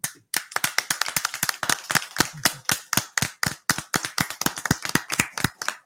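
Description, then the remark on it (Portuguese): A short applause sound-effect jingle, played to give a coach a rating, sharp, crisp claps in quick succession with a steady rhythm running for several seconds and no one talking. “vou soltar Mano. a vinheta aqui para vocês já darem essa nota, ó.”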